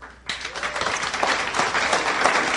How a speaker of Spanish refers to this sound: para quien pido un fuerte aplauso.